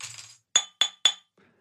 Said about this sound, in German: Wenn du es in einer, so einer lockeren Partyrunde erzählen kannst, wo du noch nicht alle kennst. So einen Toast aussprichst, so kurz an, ans Glas klopfst